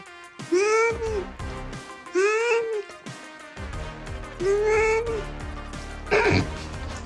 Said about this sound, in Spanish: ¿Qué tal este gato? Ahí lo escucharon, ¿eh? Claramente dice, no mames.